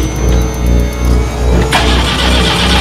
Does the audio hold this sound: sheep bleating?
no